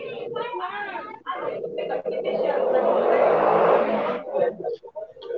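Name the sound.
motorcycle passing by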